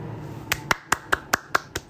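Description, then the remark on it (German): Short, thin applause for someone who has passed the Abitur: about seven sharp claps in an even, quick rhythm, each a crisp snap of sound over a quiet background, with no voices. “Da habe ich mich erst beschweren müssen, bis ich da Applaus dafür bekommen”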